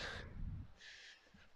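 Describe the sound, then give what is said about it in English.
Birds call outdoors in two short bursts, faint, with a low rumble of outdoor background underneath and no one speaking. “Listen to the birds chirping away.”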